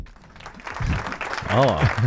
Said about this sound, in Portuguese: Temos palmas, sim.